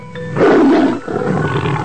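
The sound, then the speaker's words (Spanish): A menacing wolf roar bursts out loud, a single deep growling cry that swells quickly, then trails off into a rough, rumbling snarl. No voices are heard. “De repente salta desde detrás de la roca donde estaba escondido.”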